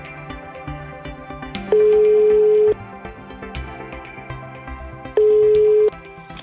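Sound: telephone ringing tone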